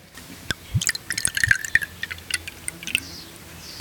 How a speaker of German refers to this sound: Es klingt schon wirklich schön hier, so die Geräusche an der Mosel. Man hört hier die Bienen summen, man hört hier Vögel zwitschern und dann das Eingießen des Moselweins.